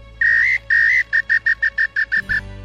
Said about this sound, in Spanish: Tú silbarás de noche y andarás como todos los pájaros de la noche. El neambú le hizo caso y empezó a silbar porque le correspondía silbar a esa hora.